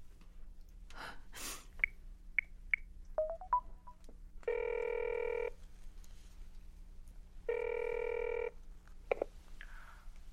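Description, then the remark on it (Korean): A few short breaths, then a quick series of high keypad beeps as a daughter dials her father in Wonju, followed by two long buzzing rings with a pause between them, and a final gasp. “아닌 밤중에 전화해서 생전 관심도 없던 딸기 농사 얘기는 왜 물어?”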